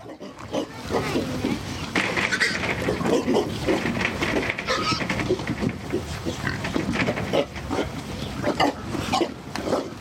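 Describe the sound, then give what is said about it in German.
Several pigs kept outdoors on a pig farm in Schüpfheim, Entlebuch, in the canton of Lucerne, let out loud, gruff grunts and sharp calls that sound like barking dogs, overlapping almost continuously for the full stretch, busy. “Diese Schweine tönen eher wie bellende Hunde.”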